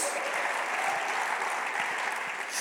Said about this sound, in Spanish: Tienes que darle un aplauso al Señor y creerlo. Y decir amén, aleluya, gloria a Dios.